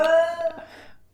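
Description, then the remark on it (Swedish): A cat that has not yet been let outside lets out one drawn-out, whiny meow, clear, that trails off into quiet within about a second. No one speaks over it. “Är det en kissekatt där?”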